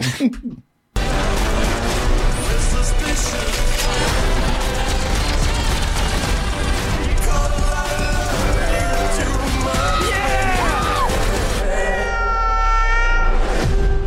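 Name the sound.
cat meowing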